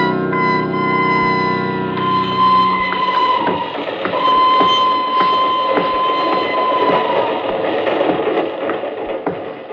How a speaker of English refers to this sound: I'm leaving on the train to Bern.